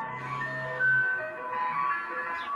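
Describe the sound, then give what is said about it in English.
A tinny ice cream truck jingle plays steadily outside on a sunny day in the UK, its simple looping melody carrying at moderate volume with no one talking over it. “we got an ice cream truck outside? Oh, can you hear that?”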